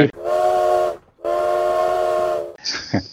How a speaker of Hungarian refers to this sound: Jó, ez, ez ki lett csipolva.